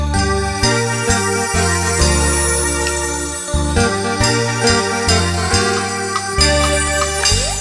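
Loud, continuous band music with a bouncy bass line stepping between notes beneath bright sustained melody tones; steady rhythm throughout and no voices.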